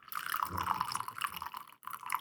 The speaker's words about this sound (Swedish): nu har jag hällt upp allt kaffe som fanns i Lillemor här. Lillemor är alltså vår termos.